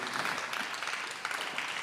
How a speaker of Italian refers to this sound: E ci facciamo un applauso e Grazie.